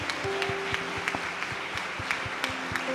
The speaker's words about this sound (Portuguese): E se essa palavra serviu de edificação para a sua vida, queria que você aplaudisse Jesus por isso.